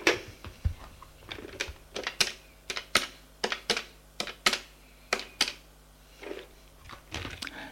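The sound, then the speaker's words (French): Someone dials a father's phone number on a keypad: a quick, uneven run of about fifteen sharp, crisp clicks from button presses, with no voices and a faint low hum underneath. “Bon, je vais prévenir ton père et on va voir s'il est d'accord sur l'écran le numéro de téléphone du père est eh, fais le numéro.”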